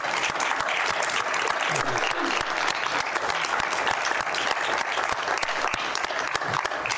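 Sustained audience applause, a dense steady wash of many hands clapping at an even loudness for several seconds, with individual sharp claps popping out of the roar.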